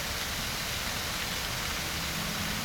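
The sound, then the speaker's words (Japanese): A steady, dense roar of rushing water from a large waterfall in a forest, holding an even loudness throughout with no pauses and no voices. “あれ着いたみたいここは森の中の滝だ”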